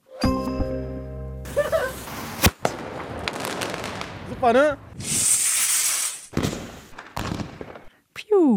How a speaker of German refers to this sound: Feuerwerk um 0 Uhr, so oder so ähnlich, hat es wahrscheinlich auch bei euch an Silvester geklungen. Gehört ja immer noch für viele Menschen einfach dazu. Ähm, knallen, Böllern an Mitternacht.